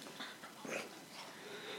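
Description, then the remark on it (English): A dog snuffles and snorts: a few soft, breathy bursts of sniffing and snorting over about two seconds, with no voices. “God, this dog.”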